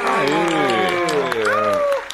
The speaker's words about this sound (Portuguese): Salva de palmas aí, meu amigo!